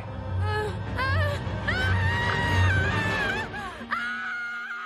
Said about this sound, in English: Penny screams, and we see what she just witnessed was in her mind. Rick tries to wake Penny up from her screaming nightmare, but he can't get through to her.